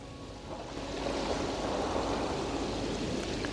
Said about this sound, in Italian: posso sentire le onde che si infrangono sugli scogli.